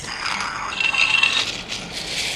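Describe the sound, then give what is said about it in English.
Lego bricks are shaken like a shaker, rattling in a quick, continuous shake, a bright clattering of plastic pieces knocking together with a steady, dense rhythm and no voices. “This one, can you just try to use it like a shaker? Each Lego piece has a unique sound.”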